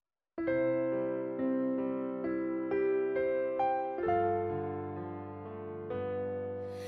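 Sustained, harmonically rich instrumental chords, likely organ or keyboard, play a gentle introduction to a gospel hymn, with chord changes roughly every second, steady and without any voices.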